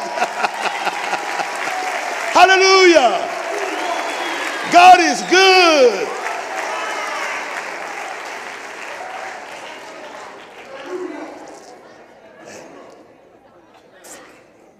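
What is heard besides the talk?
audience applauding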